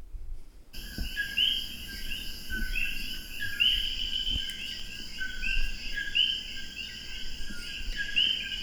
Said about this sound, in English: And uh, that sound you hear in the background is the uh, the nightlife in Puerto Rico and the Puerto Rican rainforest, anyway.